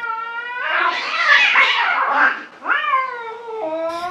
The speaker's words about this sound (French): Vous vous approchez et finalement vous vous rendez compte que c'est juste un chat poursuivi par un chien.